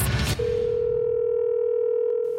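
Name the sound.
telephone dial tone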